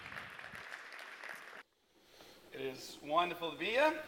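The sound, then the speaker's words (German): A crowd claps steadily for about a second and a half to welcome a speaker onto the stage, then the applause cuts off, and after a brief pause a man begins speaking clearly. “Deswegen ja äh, mit äh, einem großen Applaus dann ja.”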